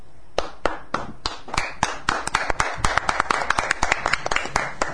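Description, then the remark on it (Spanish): Steady applause from a small group greeting a guest on a live broadcast, many sharp hand claps blending into a dense, uneven patter that builds and continues throughout, with a voice faintly underneath. “No, hace falta aplaudirme para nada, Dios mío.”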